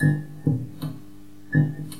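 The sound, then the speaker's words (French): A lit fluorescent tube flickers with irregular little clinks and ticks, about five in two seconds, over a steady low electrical hum. It is fairly quiet, with no voices. “qu'on va appeler cling ou scintillement, et celui-là, qu'on va appeler buzz ou bourdonnement.”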